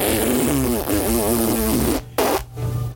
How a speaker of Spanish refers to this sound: Se suena la nariz el tío, güey. Trae gripón de los mil diablos, güey. Lo dice que son alergias